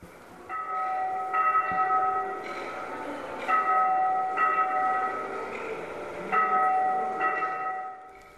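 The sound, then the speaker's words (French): Church bells ring in a steady sequence of overlapping strikes, each leaving a resonant, humming tone that blends into the next, played through three loudspeakers hung from the ceiling of a museum on Sorogdo Island. Moderately loud, with no voices. “Le premier son est celui des cloches de l'église en train de sonner.”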